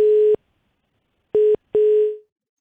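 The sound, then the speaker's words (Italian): A telephone line tone after a caller's call drops: three steady electronic beeps, one longer, then a pause, then two shorter ones close together, the last fading out. Clear, no voices. “Allora, andiamo a leggere, credo sia caduta.”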